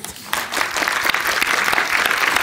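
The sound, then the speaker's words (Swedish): Steady applause from a group, a dense crackle of many hands clapping that starts abruptly after a brief quieter moment and holds at an even, fairly loud level throughout. “En applåd.”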